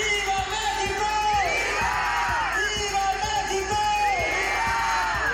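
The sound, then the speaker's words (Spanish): A large crowd roars and yells together in sustained waves, rising and falling voices blending into a dense, loud cheer with scattered whoops, during the Independence Day cry (grito) led by governor Samuel García in Nuevo León, Mexico. “crisis, pandemia o sequía que nos venza, dice Samuel García durante grito en Nuevo León.”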